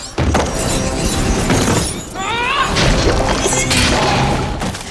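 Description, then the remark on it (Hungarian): A loud, dense burst of metallic crashing and smashing, like a cinematic robot battle of two Terminators clashing, with heavy thuds, clanging impacts and whirring mechanical sweeps layered close together for several seconds. “Nem, ne ilyen szituációt képzeljenek el, mint amikor két terminátor csap össze egymással.”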